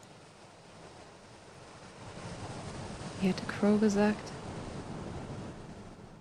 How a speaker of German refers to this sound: Vor mir der Schwarze Atlantik. Alles hier hat Geschichte. Spricht zu mir. Türmt sich auf. Überschlägt sich, bricht auf mich ein, schäumt und zieht sich wieder zurück. Wellen, eine Flut.